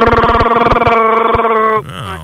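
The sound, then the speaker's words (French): A voice imitates a cat's purr: a loud, steady buzzing hum with a rapid fluttering pulse that holds for nearly two seconds, then drops and warbles into a softer, wavering tone. “Ouais, c'est un chat.”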